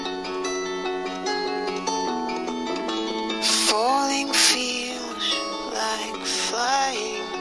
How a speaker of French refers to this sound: Bon, alors vous voyez, c'est pas super un euh, c'est un mec qui chante.